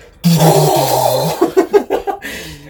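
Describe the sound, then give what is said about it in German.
A voice mimics a flamethrower: a loud, breathy roaring whoosh held for about a second, breaking into a few sputtering, crackling bursts that fade out. “Tippt so zweimal drauf und dann hörst du einfach nur von hinten so ein und oben der Flammenwerfer.”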